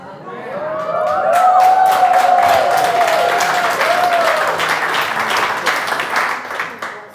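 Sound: audience applauding and cheering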